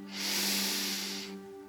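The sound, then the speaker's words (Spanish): A single deep inhalation during a guided breathing exercise, an airy hiss drawn in steadily for just over a second, with a soft sustained low hum beneath it and no talking. “Toma una respiración profunda”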